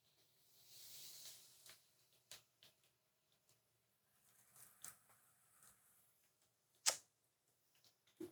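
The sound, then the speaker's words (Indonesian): A short hissing burst from an aerosol spray can, about a second long, followed by scattered soft clicks and handling noises and one sharp snap near the end. “ini di semprot semprot nih cok”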